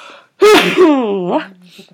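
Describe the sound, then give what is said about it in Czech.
A woman's single loud sneeze bursts out sharply and trails into a drawn-out voiced tail before fading into quiet. “Pardon, teď si kýchnu.”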